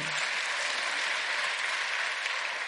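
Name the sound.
audience applauding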